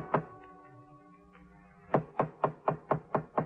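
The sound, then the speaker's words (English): One knock, then after a pause a quick run of about seven firm, evenly spaced knocks on a wooden hotel room door at the Prince Hotel, loud, with a faint hum between them. “when the sergeant was a few steps behind me, knocked on the door.”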